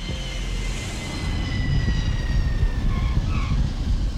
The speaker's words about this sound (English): And so that's when the plane starts to come down in Miami.